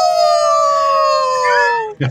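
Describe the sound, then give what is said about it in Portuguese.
A person howls like a wolf in celebration when something good happens, one long, loud, sustained cry that slowly falls in pitch, then breaks off into a short burst of voice. “que alguma coisa boa acontece, eles uivam.”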